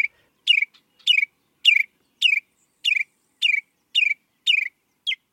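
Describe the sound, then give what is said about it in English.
A northern mockingbird sings a string of about ten identical sharp, downward-slurring chirps at a steady, quick pace, clear, with no voices or other sounds around it. “Northern mockingbirds, the continent's most proficient copycats, can learn to mimic the sounds of just about any other bird within earshot.”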